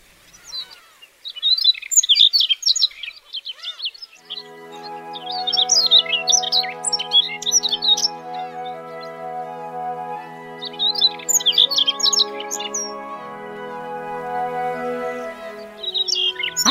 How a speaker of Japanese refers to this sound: どこまでも広がる青い日本海島の緑の草原野駒の喉の赤とさえずりが手売り島の初夏の色と音です